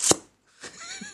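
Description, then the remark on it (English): A voice sharply sucks in air through the teeth in a brief hissing click, imitating a video game's bullet hit indicator, the sound of a bullet going into someone. A short pause follows, then a softer, breathy, whistling sound. “It's just like, to make sure uh, like you make a th sound, but except you suck it in and go.”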